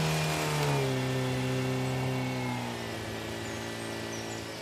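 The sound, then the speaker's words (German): A jeep stuck at a densely overgrown spot revs hard and strains at steady high pitch, its tone shifting slightly as it labors, loud, with no one speaking. “Er drehte sich um und sah, dass der Jeep nun doch an einer besonders dicht bewachsenen Stelle festhing.”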